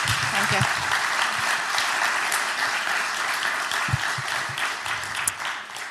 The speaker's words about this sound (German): Lass uns sie mit einem Applaus mal willkommen heißen.